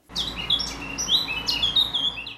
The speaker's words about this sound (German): Als nächstes wollten sie hören, was die Vögel sich zu erzählen hatten. Zwei Amseln saßen auf einem Ast und zwitscherten.